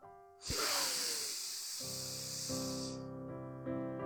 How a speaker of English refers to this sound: Sit on lay comfortably on your back, same again. Breathing in through your nose.